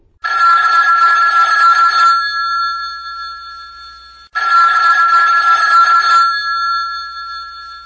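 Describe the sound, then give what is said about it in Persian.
A telephone rings twice before an answering machine picks up, each loud, bright ring lasting about two seconds, followed by a lingering tonal decay and a brief pause before the next ring. “خان گوشی و بر ندار”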